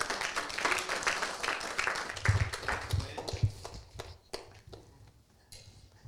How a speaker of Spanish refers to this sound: Uh, dele un aplauso al que vive.